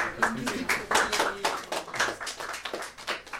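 An audience applauds a speaker before a talk on travel and the brain at Amazing Čarovna, with a dense, steady patter of many hands clapping at once, sustained at moderate volume for a few seconds, with faint voices mixed in.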